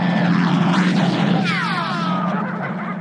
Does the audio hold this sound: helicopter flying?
yes